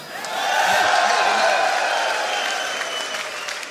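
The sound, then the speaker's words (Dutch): A large crowd of CDA party supporters applauds loudly with cheering mixed in on Dutch election night, a dense sustained wash of clapping that swells quickly and holds steady before easing slightly. “Juich maar voor jezelf.”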